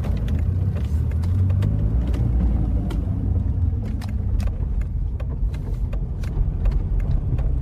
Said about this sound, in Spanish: En la ciudad de Buenos Aires. Simón maneja por la ciudad.